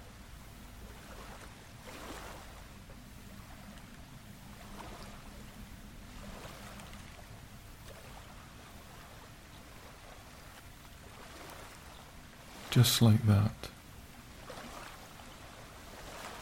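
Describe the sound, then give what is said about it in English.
Gentle ocean waves lap steadily in a soft, continuous wash with faint swells. Near the end, a brief louder splash-like burst stands out, and a voice speaks a short phrase. “your ears filled with the sounds of gentle lapping waves, all in high definition compared to the noiseless underworld of the sea.”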